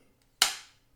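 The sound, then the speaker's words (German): A single sharp wooden snap, loud, as a film clapperboard slaps shut for take three, with a short bright ring that fades within a fraction of a second amid otherwise quiet. “Klappe die dritte.”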